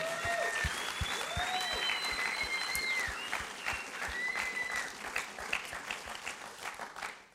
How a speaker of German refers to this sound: Dir würde ich gerne noch so als ganze Church einen Applaus geben.